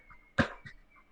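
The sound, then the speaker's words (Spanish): A person imitates a dog coughing: one sharp, harsh burst, followed by a softer, shorter hack, with quiet around it. “un perro, un perro tosiendo.”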